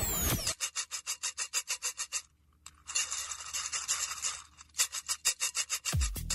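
Rhythmic scraping of a coconut grater: a quick run of about a dozen rasping strokes, a brief pause, a longer continuous scrape, then another burst of strokes. Loud and harsh, with no voices.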